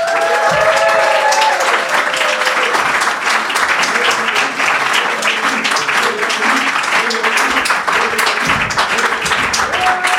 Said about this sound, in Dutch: Dames en heren, een davert applaus voor de enige de echte. De man waarvoor dat je allemaal gekomen bent,